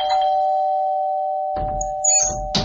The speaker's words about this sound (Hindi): इस बात को भुलाकर नितिन सोने की कोशिश कर ही रहा था कि अचानक डोरबेल की आवाज से नितिन और कुणाल दोनों की हालत डर के मारे खराब हो गई थी डोरबेल फिर से बजी